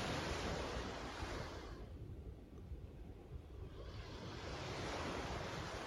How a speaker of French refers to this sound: Et vous pouvez aussi vous laisser porter par le son des vagues, apaisant, relaxant.